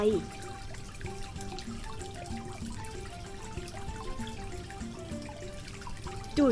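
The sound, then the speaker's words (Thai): Water splashes and patters steadily as flowers are watered on the porch of a house on a bright day, a continuous moderate wash of sound lasting throughout, with faint tonal background sounds underneath. “วันที่สดใส ลุงทองดีกำลังรดน้ำดอกไม้ ที่ชานบ้านอย่างสบายใจ”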